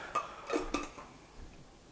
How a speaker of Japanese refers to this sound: よいしょよいしょよいしょ今ねちょっとお茶っ葉を入れてます